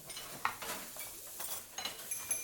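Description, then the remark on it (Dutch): Pots and pans clatter to the floor of a ship's galley, knocked over by Poetspiet, in a quick scatter of metallic bangs and clinks, several uneven hits with a bright ringing tail, fairly soft and with no voices. “Alle potten vielen op de grond.”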